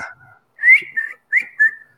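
Thin, high whistling from breathing through the nose, close to the mic: a faint tone, then two pairs of short rising squeaks in a steady in-and-out rhythm, with no talking.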